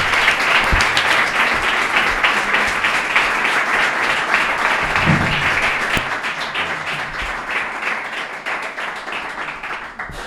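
A crowd applauds steadily for about ten seconds, a dense wash of many hands clapping that stays loud throughout and thins slightly toward the end.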